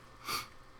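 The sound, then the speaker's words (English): A single short sneeze, a brief breathy burst that rises and fades within a fraction of a second, fairly soft and heard on its own with no talking. “Bless you. Felt that one coming, Bless but it you. wanted to take its time.”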